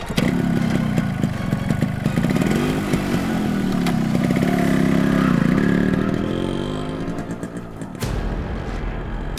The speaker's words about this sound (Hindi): चलिए उसे चौके लाना जरूरी है पकड़ के बाइक स्टार्ट कीजिए